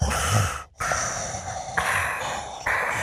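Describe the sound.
A voice imitates Darth Vader's heavy mechanical respirator breathing, with long hissing inhales and exhales repeating in a steady rhythm, fairly loud, like air rasping through a scuba tank.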